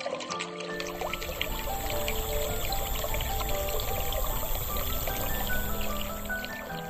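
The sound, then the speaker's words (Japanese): Cold water pours steadily and continuously, a full splashing stream with bubbling texture that starts abruptly after a brief silence and keeps going without pause. “時間が止まっているならば、火はつかないんです。水も流れない。でも、ここは。えい冷た。本物の水でしょここは時間の流れが違うから。”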